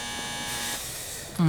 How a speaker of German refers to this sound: Ach, wieder die falsche Klingel.